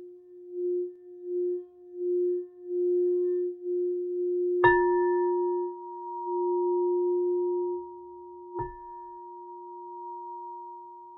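An alchemy crystal singing bowl rubbed around its rim hums a pure, steady mid-pitched tone that swells in slow pulses, then two light strikes add a higher, lingering ring above it.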